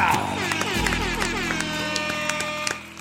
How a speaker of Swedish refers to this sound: Och som vanligt, en applåd och en liten tuta på det!